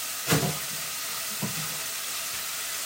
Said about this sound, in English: And away we go. You can hear it uh, cooking away there.